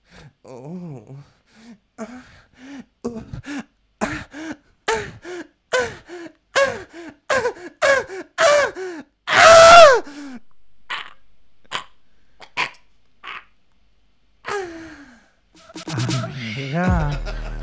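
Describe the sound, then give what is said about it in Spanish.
A voice imitates the climactic moaning of a woman who works on Wall Street in New York: a steady run of short, breathy gasping moans building to a loud cry, then scattered sighs and a final drawn-out wavering moan, alone. “Yo te voy a hacer un, orgasmo. A ver, ¿de quién? Eh, no sé, de una mujer empoderada que trabaja en Nueva York, en Wall Street.”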